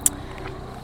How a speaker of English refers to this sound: apologies for the helicopter. It's going to be some ambient noise.